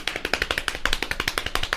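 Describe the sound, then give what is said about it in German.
A person knocks rapidly and steadily, fairly loud, with quick sharp raps running continuously at roughly ten per second and no voices. “Ich klopf so lange, bis du.”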